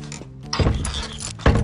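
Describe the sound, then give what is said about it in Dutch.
A broken door lock being worked: metallic clicks and a clunk of the mechanism, with two firmer knocks about a second apart over a faint mechanical rattle, no one speaking. “Het slot is ook eh, nog steeds stuk”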